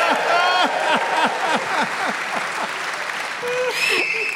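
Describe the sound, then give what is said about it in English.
An audience applauds in a dense, steady wash of clapping that sags a little midway and swells again near the end, with scattered voices and calls mixed in. “Yeah, I mean, my God, I um, I love being clapped.”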